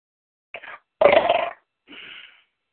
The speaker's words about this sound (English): Excuse me. And if you watch the repeat of this, ladies and gentlemen, you'll hear a lot of belching.